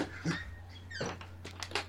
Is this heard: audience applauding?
no